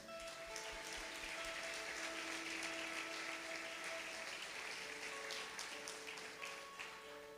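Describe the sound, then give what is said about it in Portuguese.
A church audience applauds the Lord steadily and loudly for several seconds, a dense wash of clapping hands, with soft sustained keyboard-like tones holding underneath. “Pode aplaudir o Senhor.”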